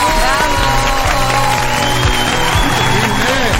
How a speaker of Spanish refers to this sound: Aplausos, por favor.